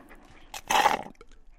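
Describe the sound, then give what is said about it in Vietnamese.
A white dog pants in a short, breathy burst as it runs in circles around a boy, with a fainter huff just before it and quiet afterward. No one speaks. “Con chó trắng chạy vòng vòng quanh Chan Song”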